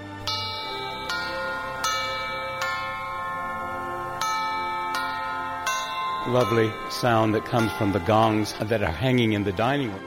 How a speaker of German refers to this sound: Dieser schöne Klang kommt vom Gong des Esszimmers.